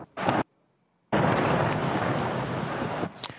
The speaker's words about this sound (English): Explosion. Remember, that was called shock and awe. We all watched it at least those of us old enough to have lived through it, the U.S. dropped enormous ordnance, just bombing everywhere in Baghdad, obviously civilian sectors.